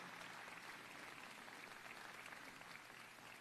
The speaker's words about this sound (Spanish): Dale un aplauso al Señor si ya entraste por la puerta. Amén.